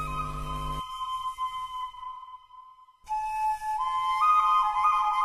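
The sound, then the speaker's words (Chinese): An ancient Jiahu bone flute, made from crane bone, plays pure, whistle-like sustained notes, falls quiet for about a second, then returns with a melody that steps upward in pitch. No one speaks. “这该不会是贾湖古笛前辈吧？”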